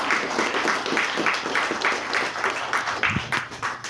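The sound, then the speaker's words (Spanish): A church audience applauds the Lord for his word after a prayer, a steady wash of many hands clapping for a few seconds without letup. “damos un aplauso al Señor por su palabra.”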